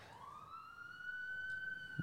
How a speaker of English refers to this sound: And if you hear a siren out there, folks, we are in DTLA, baby. Good old downtown LA.